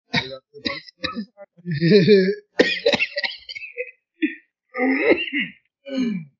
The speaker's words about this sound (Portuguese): chega tossindo no meio da parada de pés, dentro já vai te com a cachaça.